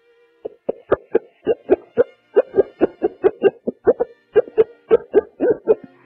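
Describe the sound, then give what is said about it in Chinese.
A voice imitates a chick's cheeping: a quick, steady run of about two dozen short, mid-pitched peeps, fairly loud, with no other talking. “先是小猫叫，然后是小狗叫，然后是小鸡叫，”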